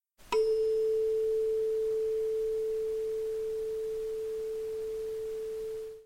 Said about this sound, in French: Si vous êtes musicien, vous connaissez forcément ce petit objet donnant le la, le diapason. Lorsque l'on fait vibrer un diapason, il produit la note La sur une fréquence précise de 440 Hz.